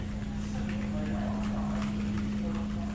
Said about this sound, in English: We brought EDR employees around the office and had them guess the decibel levels of sounds around the office. These sounds were ambient office noise, computer keyboard typing,